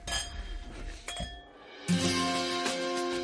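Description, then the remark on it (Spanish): Glasses clink together in a toast to Madrid and Spanish gastronomy several times, each bright strike leaving a ringing tone that lingers before the next clink. “Brindemos. Salud. Salud.”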